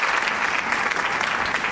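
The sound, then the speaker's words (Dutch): A burst of steady applause, dense and even clapping from many hands filling the whole moment, fairly loud, with no talking over it. “Zeg en een applaus voor diegene in het publiek die bleef filmen terwijl er een auto op hem afkwam.”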